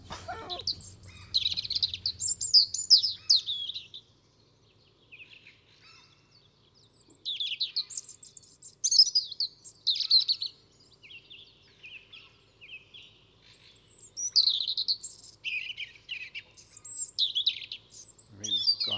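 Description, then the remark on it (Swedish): A European robin sings in clear, sparkling phrases of high, tumbling notes, repeated in bursts with short pauses between them, with a song thrush, a fieldfare and a common gull audible in the background, over a faint low background hum. “Jag tänkte vi kunde lyssna lite på rödhaken.”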